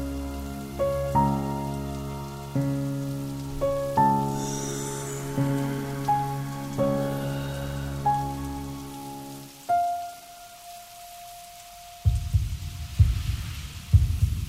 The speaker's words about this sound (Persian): صدای زربان قلبش رو میشنید تمام تنش میلرزید